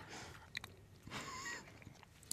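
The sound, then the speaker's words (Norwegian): Slurping and wet chewing of someone tasting spicy noodles: a drawn-out, airy slurp in the middle, surrounded by soft smacking bites and a sharp click at the end, with no talking. “Det kan være at det blir litt slurping.”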